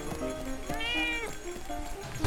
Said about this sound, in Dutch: Alleen een horde grijze duiven en een zwarte kat met een papieren zakdoek aan haar poot. Ze miauwt wat, blijft hangen bij enkele voordeuren